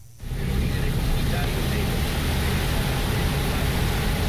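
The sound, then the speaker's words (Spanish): Heavy rain pours down on the Carretera Moca area in a dense, steady roar that starts abruptly after a brief moment of quiet and stays loud throughout. “Lloviendo en esa zona, bastante, así que Muchas gracias, este amigo.”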